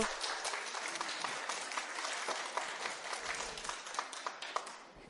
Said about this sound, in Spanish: Aplauso para nuestro otro amigo.